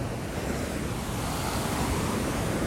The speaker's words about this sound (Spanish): Y mientras corría dije, coño, pero yo puedo hacer un podcast aquí sentado para que la gente pueda escuchar esta relajación y esta belleza que es el, las olas del océano, de mi bello océano aquí en Puerto Rico.